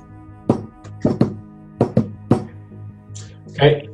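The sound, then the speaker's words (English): Six solid knocks on a door tap out a deliberate pattern: one, a quick pair, another quick pair, then a final single knock. A brief vocal sound follows near the end. “Knock on the door like so.”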